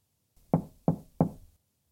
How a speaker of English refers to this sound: On October 28, 1994, Kay Banks heard a knock at the door.